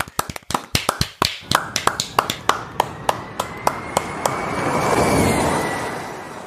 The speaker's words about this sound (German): Ich würde vorschlagen, weil wir heute noch gar nicht geklatscht haben für niemanden und das so schön ist mit vier Leuten am Mikrofon, lasst uns doch mal bitte alle klatschen.